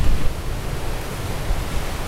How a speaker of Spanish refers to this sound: lo dice mirando al mar en una noche preciosa acá en Acapulco cuando apagamos el grabador el ruido de las olas se convierte por un momento en una parte del silencio.